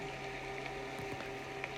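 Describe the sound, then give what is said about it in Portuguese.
Steady rain falling, a soft continuous hiss with scattered faint pattering drops and a low constant hum underneath, no voices present. “Olha que gostoso esse som de chuva, de limpeza, de purificação.”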